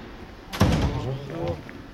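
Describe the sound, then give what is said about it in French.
A heavy security door at the police prefecture offices on the Île de la Cité in Paris closes with a single solid thunk, followed by muffled voices talking in a large open-plan room. “face à Notre-Dame, sur l'île de la Cité à Paris, dans les bureaux de la préfecture de police, on passe plusieurs portes sécurisées et on arrive dans une immense salle, un open space neuf inauguré l'année dernière.”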